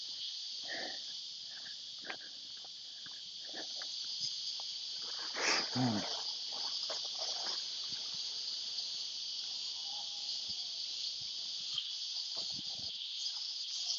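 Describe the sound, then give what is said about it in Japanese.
A loud, continuous chorus of cicadas drones steadily throughout, a dense high-pitched buzz outdoors, with faint brief rustles and a passing low sound briefly underneath. “いやー、でも最近寒かったのでね、セミたちもようやく泣けると思って、思いっきり泣いてますね。”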